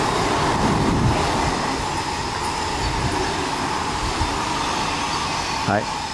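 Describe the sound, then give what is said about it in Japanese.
A Romancecar limited express train rumbles past with a steady, loud rolling roar of wheels on rails, and a brief rising tonal whine sounds near the end. “ちなみにこれはロマンスカーの音ですね”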